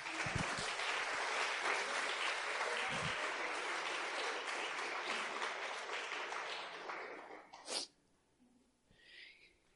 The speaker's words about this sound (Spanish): Den un aplauso a Jesús por los actores.